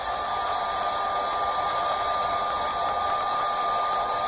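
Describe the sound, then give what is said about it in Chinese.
A hair dryer built into a shoe blows steadily for the whole stretch, a constant rushing whoosh with a thin whine running through it, loud and unchanging, with no voices. “就像这个鞋子一样，它也是个吹风机。”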